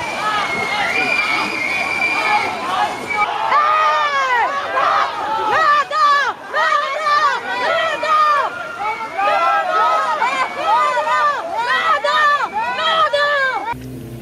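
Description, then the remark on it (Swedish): A crowd of thousands at the funeral of Baader, Ensslin and Raspe, in a recording broadcast on German TV, fills the scene with dense, continuous, loud murmuring and overlapping voices, many people talking at once and no single voice standing out. “Ni kommer få höra ett ljudklipp från begravningen sänt i tysk tv.”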